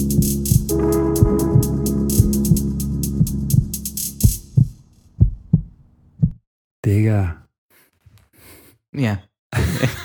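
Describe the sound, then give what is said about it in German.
A deep heartbeat-like pulse thumps steadily beneath a dense music bed, then slows into isolated, heavier beats as the music drops away, followed by breathy sighs and short vocal bursts. “Hast du ein Herzschlag gespürt?”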